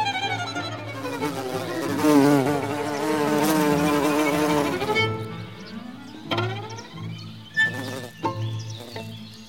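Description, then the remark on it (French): A wild bee buzzes in flight, its drone rising and falling in pitch, steady for several seconds and then breaking into shorter, intermittent bursts as it moves around. No one speaks. “Leurs différents bourdonnements, plus ou moins graves ou aigus, nous est familier.”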